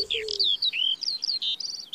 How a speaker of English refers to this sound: It's bird song that is the serenade around us. When you think of blackbirds, robins, wrens, dunnocks, wood pigeons, we've got plenty of bird song around us.